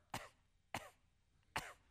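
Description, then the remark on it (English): A person imitates the hoarse coughing bark of an old dog with congestive heart failure: three short, rough bursts spaced evenly about six tenths of a second apart, fairly loud, with no other voices. “It wasn't even a bark, it was a cough, okay?”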